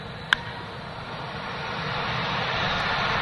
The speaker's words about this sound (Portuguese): e repare que já no jogo a direção do Dodgers colocou caixas de som com barulho de torcida, já para testar o sistema de som durante a temporada. Então ouve aí.